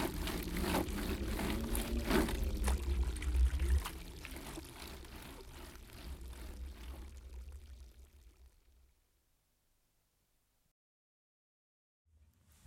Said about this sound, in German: In einer Ecke stand das Trilimürti vor ihrem Zuber und wusch und wusch.